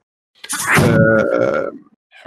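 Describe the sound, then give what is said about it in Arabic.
A single loud sneeze opens with a sharp hissing burst and trails into a drawn-out, throaty voiced tail lasting about a second, then quiet. “يرحمك الله.”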